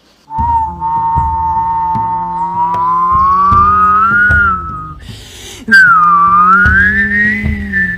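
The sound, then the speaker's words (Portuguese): A loud, sustained whistling wind effect depicting the powerful suduca wind sweeping into Portinha beach and bringing a cold front, its pitch slowly rising and wavering, broken briefly by a rushing gust before the howl returns higher and continues to the end. “O Suduca assobiou.”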